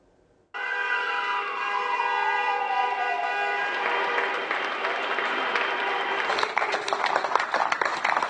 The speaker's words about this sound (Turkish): Sayın seyirciler önceki akşam olduğu gibi dün de saatler 21'i gösterdiğinde Türkiye pencerelere çıktı. Binlerce kişi sağlık çalışanlarını alkışladı.